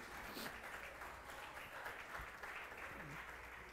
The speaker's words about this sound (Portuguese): Vamos aplaudir o pessoal lá de São Mateus, por gentileza.